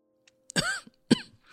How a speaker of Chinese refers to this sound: 我只是咳嗽而已，多喝开水就好啦。